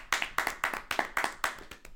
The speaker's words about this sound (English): Clap it up.